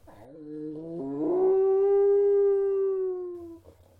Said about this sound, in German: Plötzlich hörte sie einen seltsamen Laut, der wie ein langgezogenes Heulen klang, und ihr liefen Schauer über den Rücken.